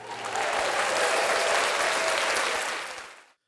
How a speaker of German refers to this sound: Aber ich möchte uns dafür nochmal über dieses Pad eingespielt hier einen Applaus geben.